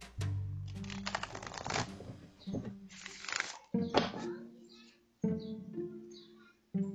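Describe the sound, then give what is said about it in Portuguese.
A tarot deck is shuffled in repeated riffling, papery bursts, while a person talks over much of the shuffling. “Agora eu vou esclarecer com o baralho de vaqueta essas cartas aí que saíram.”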